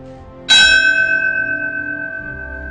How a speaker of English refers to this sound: Supervisor Iggy Terranova tolls the bell after each name.